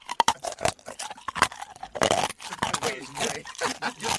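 Close, crunchy chewing fills the whole stretch: a steady run of irregular bites and wet, crackling crunches, loud and near the microphone, with no clear talking.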